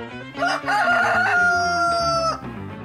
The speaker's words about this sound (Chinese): 到了第二天早上，咕咕咕咕咕，公鸡开始啼叫了。